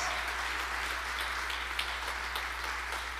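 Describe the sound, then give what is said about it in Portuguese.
An audience applauding Jesus: a dense, steady wash of many hands clapping that holds for the full length, with no voices over it. “Aplauda Jesus por isso, irmãos.”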